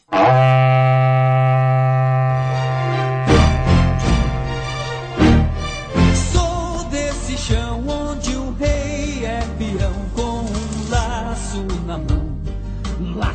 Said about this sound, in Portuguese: Toca o berrante